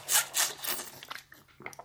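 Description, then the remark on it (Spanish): Someone drinking water: two loud, breathy, rough bursts, then a run of softer clicks and gulping swallows, with no talking. “Para, otro momentito voy a tomar agua.”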